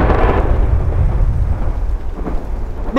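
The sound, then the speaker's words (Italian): Heavy winter rain pours down steadily in Michigan while deep, rolling thunder rumbles underneath, a loud and continuous storm wash with no voices. “Beh, me l'avevano detto che qui d'inverno piove che Dio la manda, ma non è un problema, di certo non saranno due gocce d'acqua a fermarci.”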